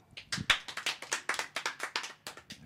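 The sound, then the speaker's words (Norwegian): A small group claps to vote for the winner of a contest, a brisk, uneven burst of about a dozen sharp hand claps, moderately loud, with no voices over it. “Vi kan ha klapping, da.”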